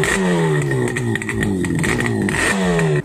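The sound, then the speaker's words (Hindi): A two-stroke motorcycle engine with a dual-barrel exhaust revs loudly, its pitch climbing and dropping in repeated bursts with a raspy, buzzing exhaust note throughout. “लेकिन अभी भी इस बाइक का जो साउंड है वो one of the best sounding motorcycle motorcycle है इंडियन मार्केट में इस बाइक का डुअल वेरल एग्जॉस्ट और वो भी टू स्ट्रोक इंजन के साथ इस बाइक को बनाता है यूनिक”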